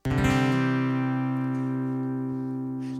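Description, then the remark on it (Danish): A Christmas pop song, the guests' Christmas song of the year, opens with a bright, sustained electronic chord that rings out steadily and loud, then slowly fades over a few seconds, with no voices yet. “som er jeres øh, julesang i år.”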